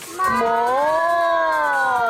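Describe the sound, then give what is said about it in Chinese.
Voices imitate a dairy cow's moo together in one long, steady, sustained call lasting about two seconds, with a pitch that rises slightly and then holds, sung out fairly loudly. “那我们赶快来学牛叫声吧，一起做。”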